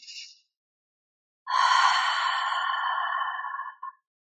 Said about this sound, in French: Donc on inspire par le nez, on gonfle le ventre, et à l'expiration, on relâche les tensions par la bouche avec un son A.